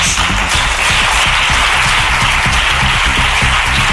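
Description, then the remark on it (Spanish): Sustained applause from the Senate benches for Sánchez, a dense, steady wash of many hands clapping at once, loud and unbroken for the full few seconds with no voices rising above it. “Aplausos desde la bancada del Senado a Sánchez,”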